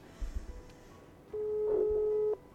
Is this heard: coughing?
no